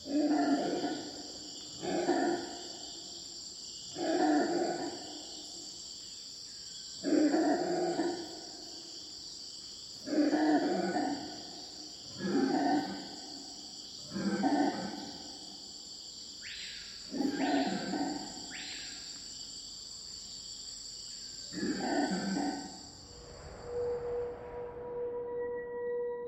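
A chorus of loud, rhythmic howler monkey calls pulses every couple of seconds over a steady insect drone in the Amazon rainforest, then sharper, higher alarm cries break in and the chorus falters before fading out.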